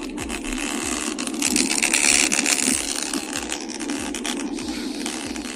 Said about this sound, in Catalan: Això és un vídeo agafat de YouTube i és eh, la lent de la càmera dels iPhones d'aquests iPhones 14 Pro Max que desenfocats, que en diem, fent un soroll que a mi em resulta molt preocupant